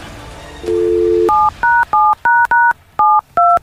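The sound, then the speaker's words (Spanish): A phone number is dialed: a steady dial tone gives way to seven quick touch-tone beeps, each a short two-note electronic chirp in an uneven rhythm, clear and without any voices. “Vamos a marcarle a Neto.”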